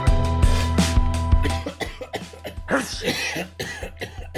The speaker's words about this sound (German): Wahrscheinlich geht's nicht nur mir so, egal wo man gerade hinkommt. Aus allen Ecken, da hustet's und schnieft's und ja, gefühlt sind gerade wirklich alle krank.